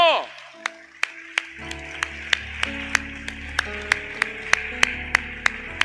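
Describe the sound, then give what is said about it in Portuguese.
Worshippers give a round of applause to the Lord Jesus Christ: steady, evenly spaced claps keep a quick beat, about two or three per second, over sustained keyboard-like chords and a low hum. The claps are sharp and moderately loud throughout. “E se você crê, dá uma salva de palmas ao Senhor Jesus Cristo.”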